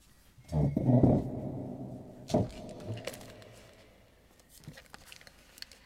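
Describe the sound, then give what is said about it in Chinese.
A chair dragged across a floor: a long, rough, groaning scrape, then a couple of shorter scrapes and faint knocks, fairly loud with no talking. “这拉椅子的声音，对我这用的是那个椅子。”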